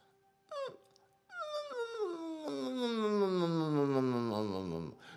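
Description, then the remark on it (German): A voice makes a short whimper, then a long, steadily falling whine that slides downward like crying, done as a voice tension exercise. It is fairly loud, with no other talking. “Mehr ist es nicht, fast wie ein Glissando.”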